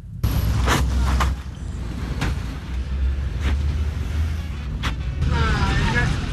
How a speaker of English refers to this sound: a sudden sound of pothole symphony when your vehicle joins the chorus, then be rest assured that a hole will be created in your bank account.